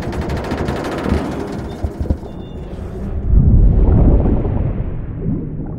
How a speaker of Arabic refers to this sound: مثال لطيف لعمليه الامبلوجن بيحصل للاسف في الغواصات لما الضغط من المية اللي بره الغواصة بيبقى أكبر من الضغط اللي جوه في الحالة دي الغواصة بتتكرمش على بعضها لحد ما بيحصل إيه انفجار